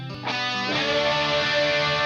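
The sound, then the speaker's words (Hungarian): Sustained, distorted electric guitar played with a glass slide, its bright tones swelling in and thickening into a loud, dense wall of sound with no voices. “Igen, van a slide gitár, ez a, amikor az üveg csövet húzogatjuk a húron.”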